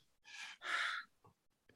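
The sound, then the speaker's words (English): An audible deep breath: a rushing inhale followed right away by a longer, heavier exhale, like a sigh, with a couple of faint soft sounds after and no talking. “yeah deep breath breathe yeah you stop thinking about the conflict with the spouse, you stop thinking about anything that's not happening on the range.”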